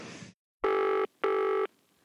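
An old-style telephone rings twice in two steady, buzzing bursts of about half a second each, loud, after a brief hiss of noise, as a lawyer in Paris receives a phone call in 1984.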